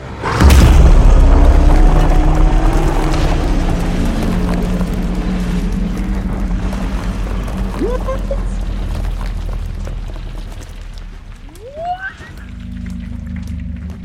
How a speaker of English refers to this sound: And then you hear a roar as the stone griffin sweeps in, claws open, and slams into its back, shattering it into thousands of huge pieces as you go tumbling off it.